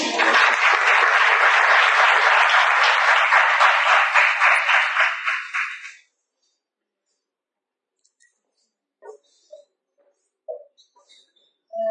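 An audience at a Shiraz Marketing gathering applauds loudly for about six seconds, dense clapping that fades out, followed by near silence with a few faint, scattered sounds.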